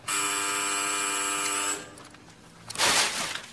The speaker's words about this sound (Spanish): Suena un timbre. El policía duda.